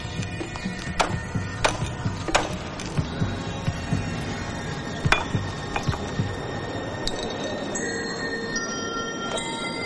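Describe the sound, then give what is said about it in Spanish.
The glass of a light bulb crunching and grinding as a young woman presses hard with a glass bottle to crush it to powder: sharp irregular cracks and clinks over a steady gritty rasp, with bright ringing glassy overtones, continuing for several seconds with no voices. “La joven aprieta con fuerza la botella para triturar al máximo los cristales de la bombilla y reducirlos a polvo.”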